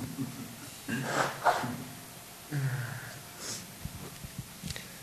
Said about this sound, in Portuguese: Desculpa, gente, eu vou assoar o nariz, tá?